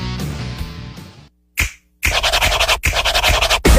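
A Lotín lottery scratch card being scratched: after a fading musical tail and a quick swipe, loud, rapid rasping strokes follow in two sustained bursts.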